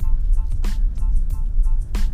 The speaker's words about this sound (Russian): Вот этот подкаст, который записывается в салоне автомобиля.